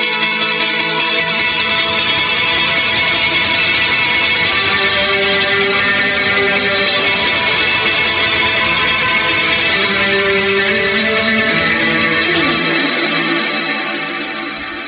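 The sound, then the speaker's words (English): A loud, shimmering electric guitar run through a small Pog octave-up pedal, its dense, effect-heavy chords sustaining for about twelve seconds before fading out, with no one talking. “my guitar sounds a bit like this.”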